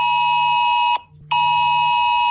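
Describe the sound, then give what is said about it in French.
A loud, harsh mobile phone emergency alert tone blares in two long bursts separated by a brief gap, a steady multi-tone buzz with no one speaking; it is the signal of a tsunami alert exercise sent by a public alert system to phones in the affected areas. “Si vous entendez demain sur votre téléphone portable cette sonnerie”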